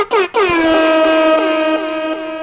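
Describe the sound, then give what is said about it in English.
A loud, blaring air horn sound effect blasts in quick bursts: two short honks followed by one long sustained blast that holds for about two seconds, bright and brassy with no talking over it. “won't do the horns every time.”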